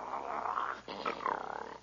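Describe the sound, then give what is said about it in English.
A dog's rough, snarling growl, loud, runs in two sustained bursts split by a brief pause, with a pulsing rattle toward the end. No one speaks. “He growls, so I'll growl.”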